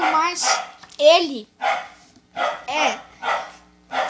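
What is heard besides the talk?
dog barking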